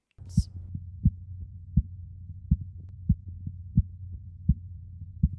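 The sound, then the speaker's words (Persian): Korotkoff sounds through a stethoscope during blood pressure measurement as the cuff valve is slowly opened to let the air out: a steady series of soft, muffled thumps roughly every 0.7 seconds over a low continuous hum, with no talking. “شما پیچ اقرب سنج رو آرام باز میکنید تا باد به آرامی خارج بشه و زمانی که اولین صدای کورتوکوف رو شنیدید فشار سیستون رو به ذهن بسپارید صدای کورتوکوف این صداست”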